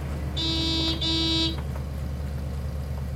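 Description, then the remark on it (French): A car horn honks twice in quick succession, two short bright blasts, followed by a low engine rumble idling in the background; the driver has parked in the snowy lot of a McDonald's drive-in in San Bernardino, California, in December 1948, honking and waiting. “L'homme au volant se gare, klaxonne et patiente.”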